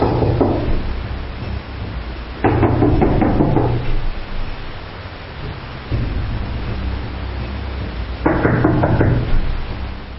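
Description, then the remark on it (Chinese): Several bursts of rapid, heavy knocking on a door during an arrest operation by Wuhan railway police, each a quick run of dull thuds separated by pauses, over a low rumbling background with no one speaking. “一敲门出来，一个穿短裤的侦查员一眼看就喊他的名字，他就应了。”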